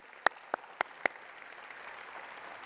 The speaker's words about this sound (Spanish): Antes de arrancar, quisiera que le diéramos un aplauso a, todos los, a, todo el equipo de, de, nuestro Ministerio de Jóvenes que hicieron un tremendo trabajo la semana pasada.